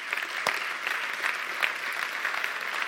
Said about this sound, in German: lasst uns denen noch mal einen großen Applaus geben. Denn ich glaube, das haben die richtig gut gemacht, oder?